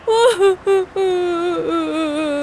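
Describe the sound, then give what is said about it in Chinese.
A person crying loudly: three short sobbing bursts, then a long drawn-out wail that slowly sinks in pitch, high and strained throughout with no other sounds. “靠，连哭声都这么难听。”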